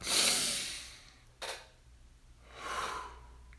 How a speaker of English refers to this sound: Uh, the more you're going through, the more deep breaths it'll probably take for you to decompress from going through that. Um, and that's the whole purpose of the deep breathing, just to decompress decompress. That's it. Let it out and uh,